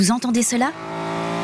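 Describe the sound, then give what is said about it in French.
A man speaks briefly, then the engine of a 1973 BMW Neue Klasse car takes over, running with a steady, even drone that grows slightly louder over the final second. “C'est, cher auditeur, le son d'une BMW Neue Class modèle 1973.”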